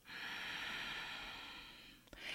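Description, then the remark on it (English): A long, steady, airy exhale through the nose during meditation, fading toward the end before a brief sharp sniff-like intake of air. No one talks. “Now, when I did my meditation, I focus on breathing through the nose and then out of the nose.”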